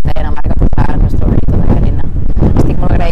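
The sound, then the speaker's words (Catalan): Loud, constant wind buffeting the microphone, a heavy low rumble that swells and gusts for the whole stretch while a voice talks underneath it, partly masked. “se mos ha oblidat la ventada que pega.”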